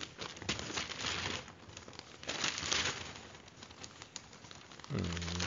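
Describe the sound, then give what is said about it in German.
Crinkly rustling of paper magazine pages being turned, several swishing flips in a row, followed by a short murmur from a voice at the very end. “Und sage dir, Bitte geh auf Seite 6.”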